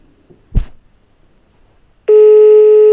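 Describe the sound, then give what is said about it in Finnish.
A single sharp click, then a pause, then a loud, steady telephone ringback tone comes in and holds through to the end, with no one speaking. “kokeillaan vielä soittaa Tuomalle uudelleen, kun ei tässä jakso alkuvaiheessa saatu kiinni”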